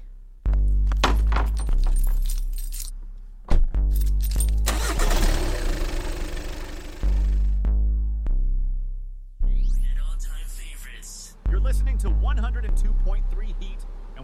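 The engine of a brand-new car is cranked over and over but won't start, each loud attempt cranking and rumbling for a second or two before cutting out, with one longer rough stretch in the middle.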